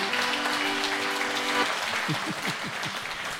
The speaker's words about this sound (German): Ja, da kann man mal klatschen, ne?